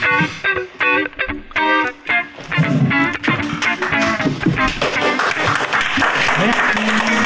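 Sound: small group applauding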